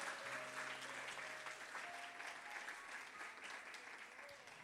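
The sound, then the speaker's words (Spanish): An audience claps steadily for several seconds in applause for the Lord, a dense, continuous wash of applause that holds at a fairly even level, with a faint sustained tone underneath and no one speaking. “Vamos a dar un aplauso fuerte al Señor si lo crees.”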